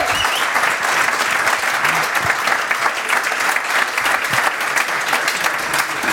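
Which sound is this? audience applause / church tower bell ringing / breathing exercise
audience applause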